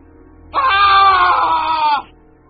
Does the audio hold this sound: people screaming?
yes